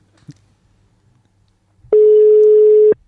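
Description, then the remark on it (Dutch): A loud, steady ringback tone from an outgoing phone call to the company's general director sounds once for about a second, a single pure beep after a mostly quiet stretch with faint background noise. “die hebben we zometeen aan de telefoon. Dat is namelijk onze algemeen directeur, dat is Wilco. Als hij opneemt tenminste. Zo, die klonk hard.”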